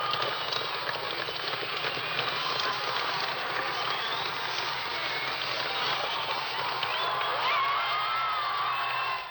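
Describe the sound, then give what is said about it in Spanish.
A large crowd at a 1979 concert roars, shouting and cheering in a dense, continuous wash of noise that holds steady for several seconds, with occasional higher shrieks or whistles rising above the din. “gritos.”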